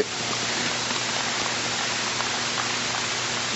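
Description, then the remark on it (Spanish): A crowd claps loudly and steadily for students selected in university entrance exams, a dense wash of many hands blending into a continuous roar that holds at the same level throughout, with no voices standing out. “un aplauso fuerte.”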